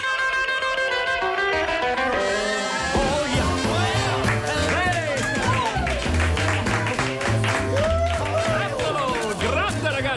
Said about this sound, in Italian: La sala è zeppa di fotografi, giornalisti, cameraman e fuori. Cavolo, ragazzi, dovreste esserci! La folla dei fan che urla, sospira! Vuole lui!